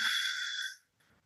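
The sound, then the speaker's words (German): A single steady, breathy exhale pushed out through the mouth during a simplified yoga breathing exercise, fairly loud with a faint whistling edge, fading out after under a second into near silence. “vier Sekunden ein, sieben Sekunden halten, acht Sekunden aus durch den Mund”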